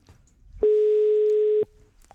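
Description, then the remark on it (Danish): A single steady telephone ringing tone sounds for about a second, clear and fairly loud, on an outgoing call to the Døgnkiosk kiosk in Tørring. No one speaks over it, and a faint quiet line surrounds it. “Så lad os lige prøve at, øh, at se, hvor fantastisk det er, når vi ringer til, øh, til kiosken nu.”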